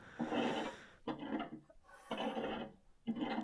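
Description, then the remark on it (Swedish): Someone shovels snow outside the window, four long rasping strokes in a steady rhythm with brief pauses between, muffled. “Det är någon som skottar utanför vårt fönster.”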